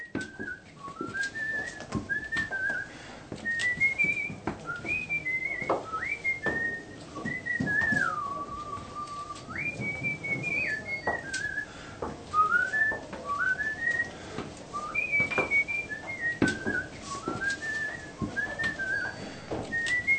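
A man whistles a song melody on his way to work at a radio station. The tune is clear and steady, with rising and falling phrases and a few long held notes, and it carries on for the whole stretch over faint background noise.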